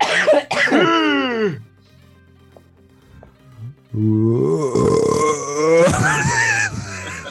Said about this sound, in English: There's a little bit of a belch in there, sorry.